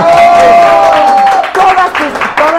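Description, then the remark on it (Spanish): Loud, sustained applause from a crowd fills the whole stretch, dense clapping mixed with shouts and cheering voices, continuous without a break. “¡Aplausos”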